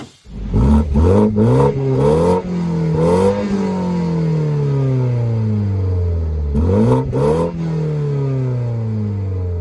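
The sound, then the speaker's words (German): A four-cylinder BMW 128 Ti engine revs hard through several quick gear changes, its tone climbing and dropping, then settles into a long steady drone before two more sharp blips of the throttle; no voices. “Äh, es ist ein Vierzylinder. Ja, genau. BMW 128 Ti.”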